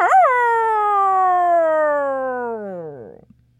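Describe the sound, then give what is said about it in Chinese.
A single long wolf howl, voiced by a person as the wolf threatening a miller in a told story: it rises briefly, then slides slowly downward in pitch for about three seconds before breaking off and fading, loud and alone with no talking. “可狼对他讲：“ 你要是不照办，我就吃掉你！”嗷！”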